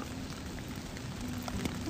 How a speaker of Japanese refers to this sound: 雨止まない可能性もありますしね予定通りには